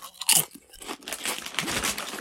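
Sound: crunching potato chips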